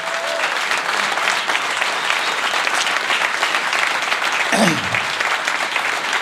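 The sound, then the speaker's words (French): Steady, dense applause from a large audience for the Dreadful Tech production team at a live show, loud and continuous for several seconds, with a brief sweeping whistle cutting through near the end. “Faites un talent d'applaudissements pour l'équipe de Dreadful Tech, s'il vous plaît.”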